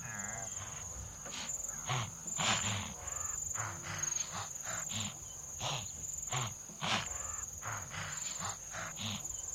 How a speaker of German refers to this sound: Alle Wildebeests drehen sich jetzt zu ihnen hin. Köpfe hoch. Aufmerksamkeit. Begutachten jede Bewegung. Warnschnauben.